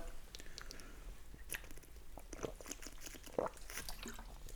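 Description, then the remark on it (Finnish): Quiet sipping from a glass of whisky: a few soft wet slurps and swallowing clicks scattered over a few seconds, with no one talking. “Hörppö Vishua tähän väliin auttaa.”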